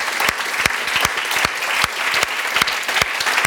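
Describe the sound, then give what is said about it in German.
An audience applauds steadily, a dense wash of many hands clapping with sharp individual claps standing out, loud and sustained throughout without pause. “Großer Applaus.”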